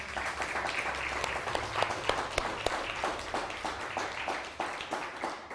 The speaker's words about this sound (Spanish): Así que, Baruch Hashem, dele un fuerte aplauso al Todopoderoso.